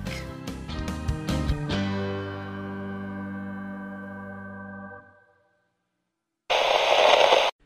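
A ringing musical chord fades into a brief silence, then a loud burst of radio static hisses for about a second and cuts off abruptly.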